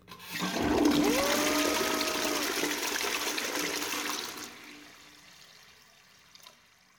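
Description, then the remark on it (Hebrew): A toilet flushes with a loud, broad rush of swirling water lasting about four seconds, a rising tonal gurgle running through it, before it fades to a quiet trickle and silence. “לאוויר, לשדות, ל... שירותים?”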